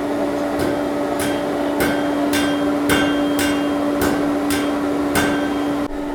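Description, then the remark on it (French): A hammer beats hot metal in a steady rhythm, flattening and thinning one corner of a rectangular metal piece, about ten sharp ringing strikes roughly half a second apart, over a constant droning hum like a forge blower. No one speaks. “Il faut qu'on aplatisse un des coins pour que ça fasse la, la on va faire comme ça, ça va devenir plat.”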